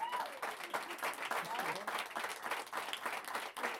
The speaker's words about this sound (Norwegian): Og ja Kanskje en applaus for